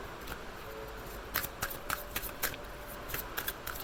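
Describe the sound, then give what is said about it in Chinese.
Tarot cards being shuffled and four cards drawn for a reading: a soft papery riffle followed by a series of sharp, crisp flicks and slaps at irregular intervals, with no voices. “这边让我抽四张。”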